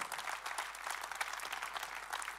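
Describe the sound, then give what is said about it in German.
An audience claps steadily, dense overlapping hand claps forming a continuous, fairly even wash of applause with no voices standing out; the applause is given for God. “Lass uns für das Gott einen Applaus geben, weil Gott schickt die Engel dann, was du brauchst.”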